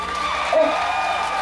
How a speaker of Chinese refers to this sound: 来宾掌声鼓励。